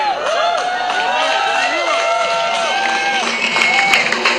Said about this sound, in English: They heard the roar of the people. Yeah! Yeah.